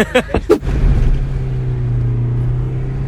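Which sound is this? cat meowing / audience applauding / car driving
car driving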